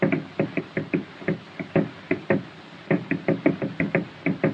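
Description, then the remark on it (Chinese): A musician's foot stomps out a steady beat at the start of a Paramount record, about twenty dull, thumping hits landing in a quick, slightly uneven rhythm with short gaps, loud and alone with no voices. “专门把他的跺脚给录了进去。这个音乐一开始就是他在用脚打拍子。”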